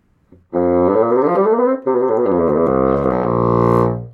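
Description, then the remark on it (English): A wooden bassoon, the largest and lowest common woodwind, plays a short, loud phrase of sustained reedy notes, sliding and stepping between pitches before settling on a long low tone, with no one talking. “But when you put it on the instrument itself,”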